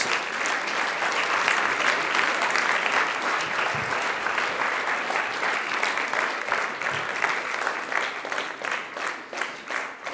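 Sustained applause from wedding guests for the bride as she comes in, a dense, steady clatter of many hands clapping that holds loud for about ten seconds and begins to thin slightly toward the end.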